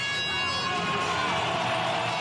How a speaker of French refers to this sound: Hier, au parc des expositions de Villepinte, Éric Zemmour traverse la foule qui l'acclame.